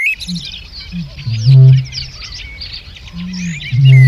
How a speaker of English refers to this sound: Now that's the haunting call of one of Britain's rarest birds, the bittern. It's hoped it will be heard again soon on a reserve in Oxfordshire that it may have inhabited a hundred years ago, when man was its main predator.